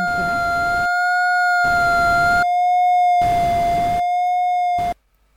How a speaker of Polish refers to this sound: No, możemy usłyszeć za pomocą dźwięku, jak wygląda przebieg tego wykresu. Słyszymy za pomocą szumu iż czasami znajduje się od pod osią wartości mają mniej niż 0, czasami nad i również idzie ciągle